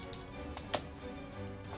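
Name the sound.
dice being rolled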